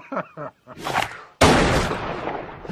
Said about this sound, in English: I love how the camera pans over quick as shit to Cole, who just whips out this fucking gun and shoots him point blank.